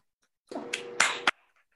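A short burst of hand clapping, less than a second long, with a few sharp, close claps standing out from a dense patter, then silence.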